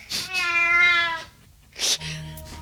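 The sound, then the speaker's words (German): A cat gives one long, clear, drawn-out meow, followed by a short pause and a brief sharp sound, with a low steady hum underneath toward the end, as part of a homemade news jingle for Electrify BW Nachrichten. “Also sowohl Kinder als auch Katzen.”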